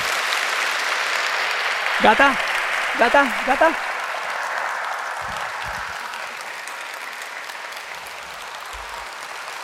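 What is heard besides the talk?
audience applause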